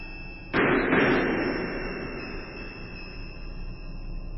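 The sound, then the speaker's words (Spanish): Two sharp, loud gunshots fire in quick succession, the second close behind the first, followed by a long echoing decay that fades slowly. No one speaks. “Después de estos tiros desperté.”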